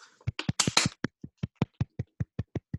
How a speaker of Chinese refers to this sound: 那咱们给自己鼓掌吧。